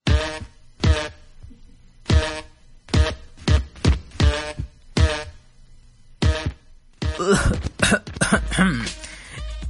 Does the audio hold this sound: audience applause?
no